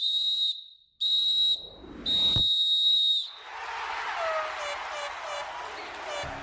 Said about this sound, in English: There's the final whistle.